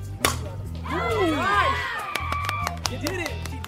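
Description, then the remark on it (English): A single loud, sharp crack of a softball bat meeting a fast pitch, high and inside, near the start, sending a line drive down the left field line, followed by an excited crowd cheering and shouting over a low steady hum. “That's the sound of the hit.”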